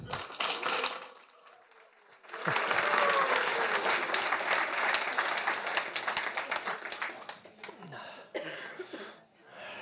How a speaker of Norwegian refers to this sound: Og han skal i kveld holde foredraget 'Tidene forandres, og vi med dem'. Gi han en varm applaus.